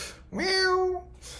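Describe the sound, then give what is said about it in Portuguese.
A hungry cat wanting its food sachet opened lets out a single drawn-out meow, fairly loud, rising at the start and then holding steady before trailing off, with soft background noise around it. “melhor você abrir o sachê do seu gato, senão ele vai paliar você aí, rapaz.”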